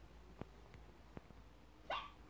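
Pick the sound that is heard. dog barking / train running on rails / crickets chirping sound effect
dog barking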